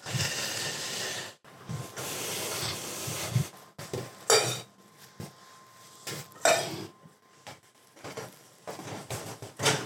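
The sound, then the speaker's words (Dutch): A fork stirs pasta in a pot, with scraping swirls and a few sharp metallic clinks against the sides over a steady background hiss. “En dan een keer direct mijn vork in roeren.”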